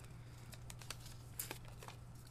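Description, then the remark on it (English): Real paper crinkles and rustles in a quick series of soft, irregular crackles, fairly quiet, with a faint steady hum in the background and no one talking. “It's real paper.”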